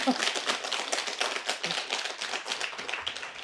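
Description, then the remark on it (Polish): An audience applauds as a greeting to viewers in distant corners of the world, a dense, steady patter of many hands clapping at once that runs without a break for a few seconds at moderate volume. “Mogę na to liczyć? Oklaskowa rzecz jasna.”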